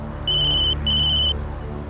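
A telephone rings in two short electronic trills, each about half a second long with a brief gap between, high-pitched and steady, over a low background hum.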